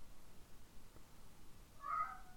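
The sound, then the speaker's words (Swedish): A cat lets out a single short, drawn-out yowl near the end, quiet against a soft background hiss, with no one speaking. “Står han och ylar i bakgrunden. Är förtvivlad.”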